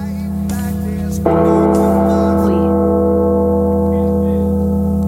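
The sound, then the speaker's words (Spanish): A deep bell tolls loudly in the intro of a rock song, one heavy strike ringing out with a long, humming sustain that fills the rest of the moment, with no voices over it. “Esas campanas.”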